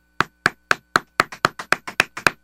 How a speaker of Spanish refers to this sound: Está aplaudiendo eso. ¿Qué cosa? Aplauda eso.